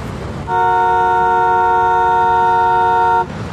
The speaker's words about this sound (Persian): با بوق ممتد ماشین عقبی یه دفعه به خودش اومد متوجه سبز شدن چراغ نشده بود